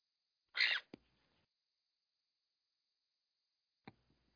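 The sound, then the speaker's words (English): A pet bird lets out one short, harsh squawk, followed by a soft click, a long quiet stretch, and another faint tap near the end. “The bird said no cat. No cat.”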